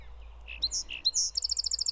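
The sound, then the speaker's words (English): A bird sings a bright, high song: a few separate clear notes, then a rapid run of quick repeated chirps, fairly loud over a low background hum. “For example, learning to distinguish the different songs of birds.”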